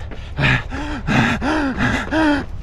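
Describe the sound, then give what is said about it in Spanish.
A voice imitates heavy, labored panting, with about five loud gasping breaths in quick rhythmic succession, breathy, like a runner already exhausted at kilometre one or two of a race after setting off too fast. “Que revientas, que revientas, que en el kilómetro 1, kilómetro 2, vas viendo ya que vas jadeando.”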